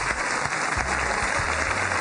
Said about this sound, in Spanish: Es un honor tenerla esta noche con nosotros, por eso recibimos con un fuerte aplauso a María Eugenia Penagos.